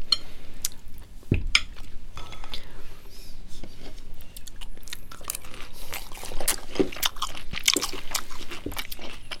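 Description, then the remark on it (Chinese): Crunchy chewing on a crisp, well-charred pan-fried food with a crispy outside: a run of irregular crackling bites and mouth noises, moderately loud, with a few sharper crunches and faint clinks of dishes or utensils. “哦，焦的很爽哎，外面是酥脆的。”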